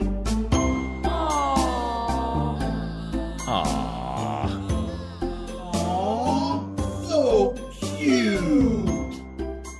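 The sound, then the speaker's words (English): A cutesy "aww" sound cue: drawn-out, swooping cooing voices layered over bright tinkling chimes, loud, running continuously for about ten seconds with no talk over it. “can we sound cue in awe there? Like the most obnoxious cutesy.”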